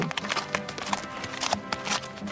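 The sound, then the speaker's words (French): Hooves of a horse carrying a young king clip-clop at an unhurried walk under a cloth-of-gold canopy held by four barons, in a procession from the Tower of London to Westminster Abbey; hollow knocks spaced a little unevenly over a steady, busy background with no one speaking. “monté sur son cheval qui chemine à l'ombre d'un dé de drap d'or soutenu par quatre barons.”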